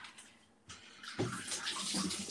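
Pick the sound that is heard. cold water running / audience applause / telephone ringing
cold water running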